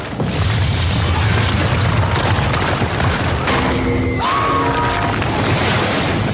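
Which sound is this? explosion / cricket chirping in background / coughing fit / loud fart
explosion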